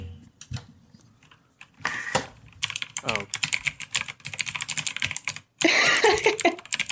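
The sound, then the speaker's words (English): Rapid keyboard typing, a dense run of crisp clicks and clacks with brief pauses, followed by a burst of louder, busier tapping; a voice briefly speaks over it. “some of the more, more common trigger noises or sets of noises are like typing or like whispering”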